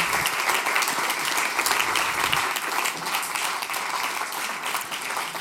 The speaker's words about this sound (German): Ich äh, komm, geben Ihnen einen herzlichen Applaus. Merci, dass Sie da waren.